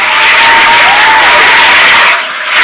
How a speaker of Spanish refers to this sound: Sí, Claro que sí, un, un, fuerte aplauso, la verdad es que sí